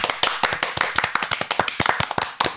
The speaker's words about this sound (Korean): 와, 와. 아, 박수.